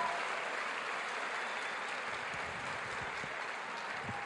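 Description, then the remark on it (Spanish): Sustained audience applause for the leaders of a business team, a dense, steady wash of many hands clapping at even loudness throughout, with no voices standing out above it. “Y ustedes tienen, yo quiero que le den un fuerte aplauso a todos sus líderes en ausencia, en presencia, por todo lo que han hecho y por su trabajo.”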